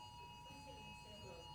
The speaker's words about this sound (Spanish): Eso es una alarma, ¿cómo se, una alerta Amber, una emergencia, ¿verdad? ¿De qué es? Persona perdida. Sí, ese era mi segundo comercial. Buena oportunidad para ponerlo en vibrador o, en, silencio. ¿Está en vibrador y aún así pita?